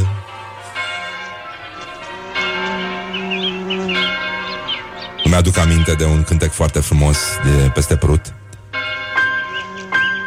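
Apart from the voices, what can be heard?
church bells ringing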